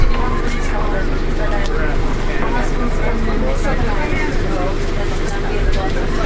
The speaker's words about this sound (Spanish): Al final hemos subido al shuttle. Es que para subir hacia arriba.